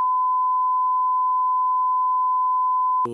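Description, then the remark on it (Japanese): A steady, unbroken censor bleep at a single pitch, covering a Demon Slayer spoiler, holds for about three seconds, loud and alone, then cuts off abruptly as a voice breaks in at the very end. “あら、ピピ、ピピピにしといてよ、ここは。”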